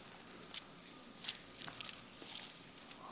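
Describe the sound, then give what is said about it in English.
Soft, scattered paper rustles and crinkles overlap as a church audience turns the pages of their Bibles to Acts 2 at once. No one speaks. “It is kind of cool to hear pages turning or to hear this on your phones.”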